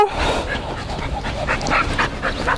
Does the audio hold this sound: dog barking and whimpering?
yes